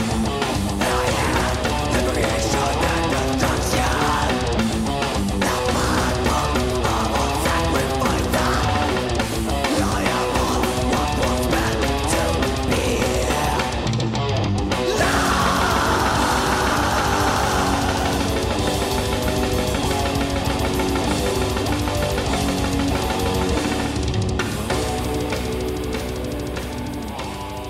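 A melodic death metal song plays loud and dense throughout, with heavily distorted guitars, driving drums and a thick low end, with no speech over it.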